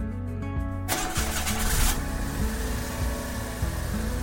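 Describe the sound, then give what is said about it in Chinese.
A car engine cranks and catches with a burst of noise, then settles into a steady mid-pitched running hum as a father drives the car to a cinema. No one speaks. “爸爸开着车前往目的地，不一会儿，他把车子停在电影院的停车场。”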